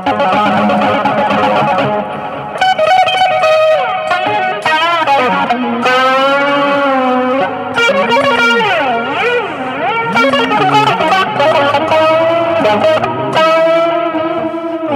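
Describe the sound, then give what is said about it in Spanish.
A loud, heavily distorted electric guitar solo with a wah effect, wailing through long sustained notes and swooping pitch bends, with no steady rhythm underneath and no voices. “son todo muy sostenido y si no hay, no hay rítmica ninguna, son todos ruidos.”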